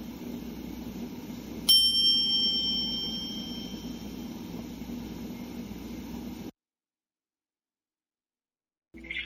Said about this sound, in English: We will end our silence at the sound of the chimes.